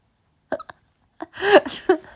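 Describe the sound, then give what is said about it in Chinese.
A few short, sharp coughs, then a longer, harsher burst of coughing that rasps on for most of a second. Fairly loud, with no talking. “咳嗽的太厉害了，要不早点休息吧。”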